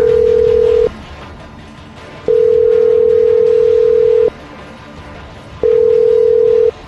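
A telephone line tone sounds in three steady, low-pitched bursts, a long two-second tone between shorter ones, separated by gaps of quiet line hiss, as a call is placed during a radio show. No one speaks.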